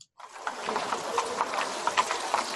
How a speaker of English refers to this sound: Um, the carriage starts to take off.